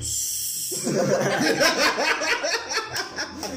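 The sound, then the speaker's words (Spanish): A voice imitates a quiet, hissing fart with a brief airy hiss pushed through the lips, then breaks into chuckling and snickering. “Entonces te abres las nalgas, güey, y nada más suena así”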